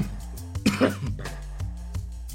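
A single short cough that turns into a throat clearing from a person with a slight cold, moderately loud, over a low steady background hum with no talking.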